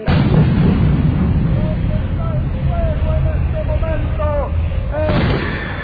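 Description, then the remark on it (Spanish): TNT fragmentation bombs falling from the sky and a rain of 7.62 mm and 20 mm machine-gun fire, the guns together firing up to 570 shots per minute: a dense, loud rumble of blasts runs throughout, with faint whistling tones sliding downward over the steady barrage. “Desde el cielo seguían cayendo bombas de fragmentación de trotil y una lluvia de balas 7,62 y 20 milímetros.”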